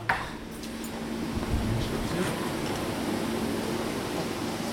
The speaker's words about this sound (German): Im Labor ist ein grosses Gewusel. Überall plätschert etwas und es ist laut. Links stehen grosse Wasserbecken mit Pflanzen drin.